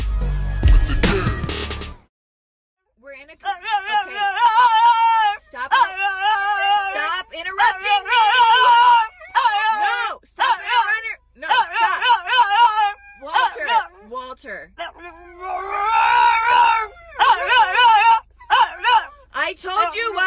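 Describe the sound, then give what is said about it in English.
A dog whines and howls in long, wavering, almost talk-like bursts with short pauses between them, following a brief noisy thump at the very start. “And in this case, you ask one of your dogs.”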